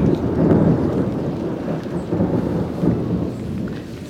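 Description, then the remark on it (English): A thunderstorm brewing over the Aglomerado da Serra favela complex, in the hills above a city's south central outskirts, rolls on with deep, continuous rumbling thunder, low and heavy, mixed with a steady wash of rain and no voices. “in the hills above the south central outskirts of the city, at the massive favela complex known as Aglomerado da Serra, a storm is brewing.”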